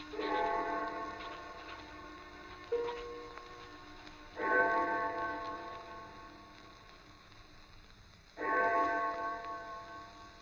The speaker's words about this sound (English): I had no idea how long I worked until I heard the clock of St. Jude's in the distance. It was four o'clock, and I had started just after breakfast.